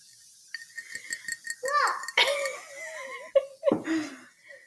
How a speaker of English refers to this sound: Hey guys, this is now an ASMR video. I hope you guys enjoy. That's my son's rattle. Do you like the way that sounds in your ear?